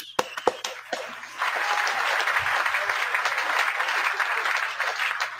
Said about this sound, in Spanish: quiero poner un aplauso a toda la gente que ya se ha unido en este mes y pico Así que aquí está para vosotros.